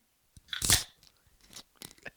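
A Colt 45 malt liquor can, held in a paper bag, cracks open with a sharp pop and a bright burst of hiss, followed by several fainter metallic clicks and snaps. No one speaks.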